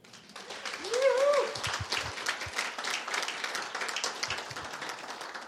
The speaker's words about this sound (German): Wollen wir Gott einmal einen Applaus geben?